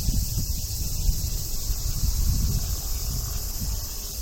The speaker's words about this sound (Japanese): ああセミちゃんも頑張ってるもんな私はこの声を聞くのが大好きですあなんか大きくなってきましたね大好きって言ったからかな 張り切ってくれてます